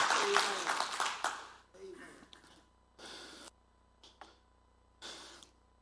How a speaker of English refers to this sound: why don't we give the lord a hand clap of praise because he deserves it he's working in the lives of people